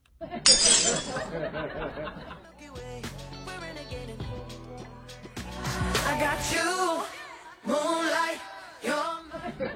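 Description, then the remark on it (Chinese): A sharp crash of shattering glass bursts out at the start, bright and crisp, then gives way to a stretch of voices and tonal sounds continuing for several seconds. “心碎的声音。”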